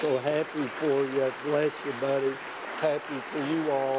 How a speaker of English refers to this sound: And I know you want to pledge your love and prayers to Jace and his family by letting it be known by saying amen and applause.